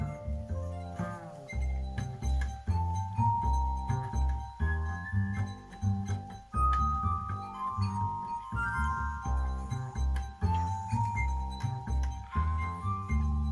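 A glass instrument (séraphin) sings sustained, shimmering tones that glide between pitches, over a deep bowed and plucked double bass line, close and full, with no voices.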